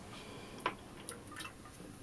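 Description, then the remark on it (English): A quick sip from a drink: one soft, wet click of the lips followed by a couple of fainter liquid ticks, quiet and without any talking. “Let me take one sip.”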